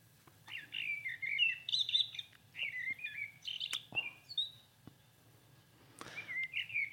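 A common blackbird sings a run of fluty, warbling phrases, clear, with brief pauses between phrases and a faint low hum underneath; no one speaks.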